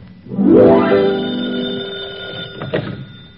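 An old-fashioned telephone bell rings loudly once, a bright metallic jangle that swells quickly and then sustains and fades over a few seconds, with no voices.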